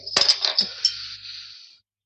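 A sharp pop of a beer bottle being opened, followed by a bright metallic clatter of the cap bouncing and ringing briefly on a hard surface, with no talking.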